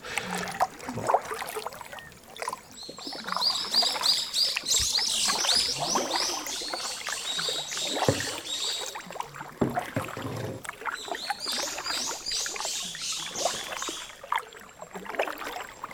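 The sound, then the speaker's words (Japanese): Kayak paddle strokes dip and splash steadily through river water on Iriomote Island, Japan, with gurgling and trickling between strokes and a bright chorus of birds or insects in the background. “カヤック自体はすごく自然に近づくのが得意な乗り物なのでこの道具を使って水に浮かぶ道具を使って自然に近づくっていうのをこうメインに考えてますね”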